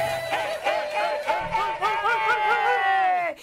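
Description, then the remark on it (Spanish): Several voices let out a loud, rising and falling mariachi-style grito together, wavering yips and trills with a long, sustained high cry at the end. “Hemos perfeccionado este grito y estamos a dos de ser mariachi.”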